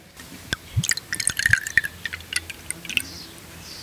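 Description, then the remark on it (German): Riesling quality wine from a screw-cap bottle pours into a glass at the Mosel in uneven splashes and glugs with small clinking drips, while faint birds chirp in the background; no one speaks. “Man hört hier die Bienen summen, man hört hier Vögel zwitschern und dann das Eingießen des Moselweins.”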